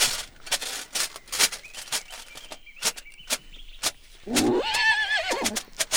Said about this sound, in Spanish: Podíamos escuchar la silla de montar chirriando y el caballo bufando y resoplando.